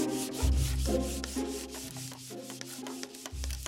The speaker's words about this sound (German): Und äh, mit dem Schleifpapier schmiegle ich Holz ab. Weg mit den lästigen Holzsplittern.